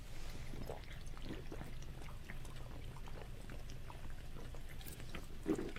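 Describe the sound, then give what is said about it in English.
A drink spills and splashes in a steady, quiet gurgling stream with scattered small drips and clicks over a low background hum, lasting several seconds with no one talking. “I think I spilled everything again.”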